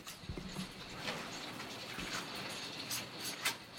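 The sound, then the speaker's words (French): A very long motorized bead necklace, an artwork called Cascade, taps and clatters against the floor in irregular clicking bursts with a fairly metallic sound, a soft mechanical whir and room hum underneath. No one speaks. “c'est un collier qui est en fait animé par un moteur et qui touche le sol”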